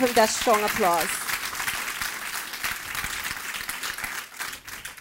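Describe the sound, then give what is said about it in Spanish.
An audience bursts into sustained applause, a dense steady wash of clapping that runs the whole time, with a brief voice at the start and a few cheers mixed in. “Ahora sí, déle ese fuerte aplauso.”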